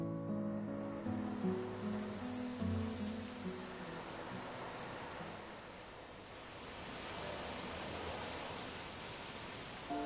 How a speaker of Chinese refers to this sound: 透过落地窗，我们可以看到一望无际的大海。还可以听到此起彼伏的海浪声。